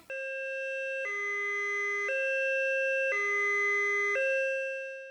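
An ambulance siren wails in a steady two-tone pattern, switching between a high and a low note about once per second. It sounds loud, with no voices.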